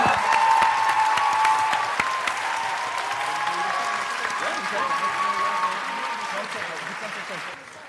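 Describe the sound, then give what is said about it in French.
A dense crowd applauds and cheers loudly for several seconds for a guest credited with reviving podcasts in France, clapping steady with whoops and shouts mixed in, then fading slightly before cutting off. “Faites un maximum de bruit pour lui.”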